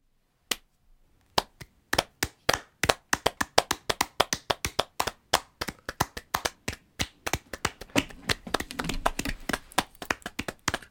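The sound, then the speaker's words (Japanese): One pair of hands clapping in a standing ovation, sharp individual claps that begin sparsely and settle into a steady, enthusiastic applause rhythm, growing quicker and denser toward the end, with no talking. “ごめんなさい今立ち上がったんですけど僕 スタンディングオベーションしてしまったんですけれども”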